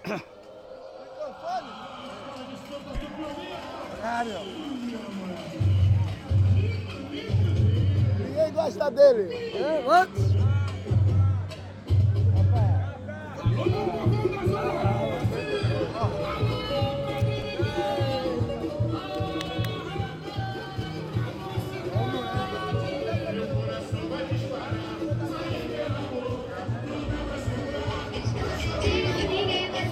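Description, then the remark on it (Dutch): A lively carnival party crowd in a favela chatters and shouts over loud, pounding music with a steady thumping bass beat, the noise dense and continuous throughout. “zoals je hoort zitten we nu op een carnavalsfeestje in de favela.”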